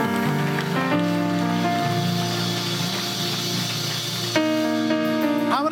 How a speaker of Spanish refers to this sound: Alguien regálele una vez más un aplauso al Señor.